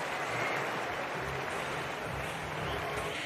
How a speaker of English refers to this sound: The crowd thoroughly enjoyed it, but it is Alejandro Davidovich Fokina who makes his way through, takes the applause of the crowd.